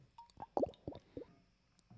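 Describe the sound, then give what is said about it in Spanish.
Quiet sipping of water: a few short wet slurps and gulps in quick succession, with faint swallowing and no talking. “de hecho, déjenme tomar un poco de agua.”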